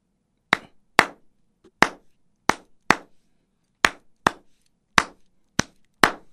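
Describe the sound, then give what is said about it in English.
Hands clap a three-two clave rhythm twice through: three sharp claps, then two, repeated for ten crisp, loud claps in all with short silences between, no talking. “And and uh, uh, can you ju- clap the beats for us so we hear the difference?”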